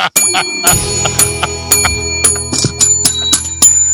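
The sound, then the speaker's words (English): A small bell on a lanyard rings repeatedly in quick, irregular jingles, bright and metallic, sustained tones shimmering between strikes, with no voices over it. “you get the bell and yeah. like listen, don't ring it a bunch, but you're welcome to ring it if you feel like it w- it's an occasion that the bell should ring.”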